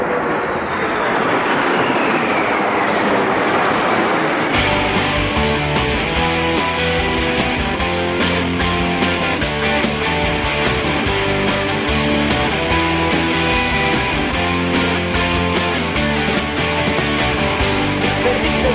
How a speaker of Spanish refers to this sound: en el aeropuerto.